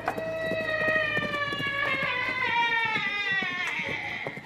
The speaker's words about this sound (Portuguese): Tem um cavalo nos seguindo. Mas ele está sozinho. Está sem cavaleiro.